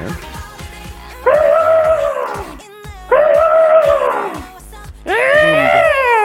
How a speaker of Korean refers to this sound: 정답은 아프리카 코끼리였습니다. 아, 예. 여러분들이 TV 프로그램 보시면 아프리카 코끼리 그 정글에서, 네, 그 농장에서 막 들리는 소리, 그 소리 정확하게 맞춰주신 분들이 많이 계십니다.